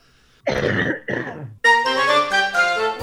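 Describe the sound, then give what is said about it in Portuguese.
A man coughs twice in quick, harsh bursts, then follows with a longer, strained, voiced hacking sound, loud, with no talking. “A, coisa, a piada ficou melhor com, com a tosse, a tosse do, do, alemão.”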